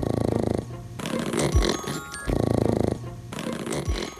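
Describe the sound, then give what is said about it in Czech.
A small pug snores after a massage in two full breath cycles: a buzzy, rattling inhale followed by a softer, airy exhale, repeating at a steady rhythm with no one talking. “A chcete slyšet, jak Dagdo pak chrápe?”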